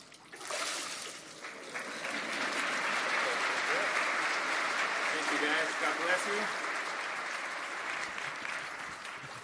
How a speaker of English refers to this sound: All right, let's give another round of applause for everybody that got baptized today. It's so great to be able to celebrate with all of them